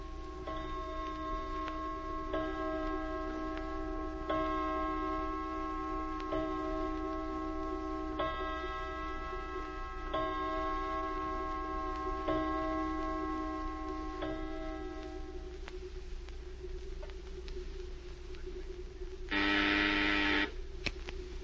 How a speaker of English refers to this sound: Look at the clock.